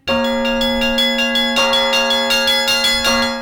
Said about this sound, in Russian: Николай достал телефон, нажал там что-то, и колокола зазвонили.